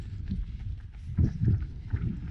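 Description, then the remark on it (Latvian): Steady, rhythmic thuds of running footsteps on a hard surface, moderately loud, on a sunny day during a run of nearly an hour, with a soft background hum and no voices. “Šajā saulēnajā dienā gandrīz stundu būsim noskrējuši.”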